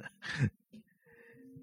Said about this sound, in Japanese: すいません。この音を拾えてくるからなんかすごい変な、ね、すっとんきょな声出してね、騒いでる人がいますけども、ね、たまにいますね、なんかね、こういうの。